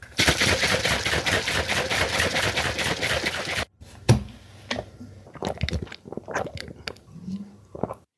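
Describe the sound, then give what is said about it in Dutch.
A shaker cup of milkshake, made from powder and water, is shaken hard and fast for a few seconds, a loud rhythmic sloshing rattle, followed by quieter scattered knocks and clicks as it is set down. “En dan schudden.”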